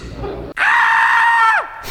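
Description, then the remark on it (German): A person lets out one loud, sustained scream lasting about a second, its pitch sliding downward as it cuts off, with faint background noise before and after. “Genau, zum Schreien wird dir auch gleich sein.”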